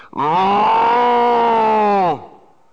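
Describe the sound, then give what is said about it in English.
A man's voice imitates a cow mooing over a huge loudspeaker system in Cannon Beach, heard while walking through town: one loud, sustained moo lasting about two seconds at a steady pitch, then it dips and cuts off, leaving a brief faint tail. “and yeah, and it was about that loud, and it was it was a bad imitation of a cow mooing by by some guy over his huge loudspeaker system in Cannon Beach.”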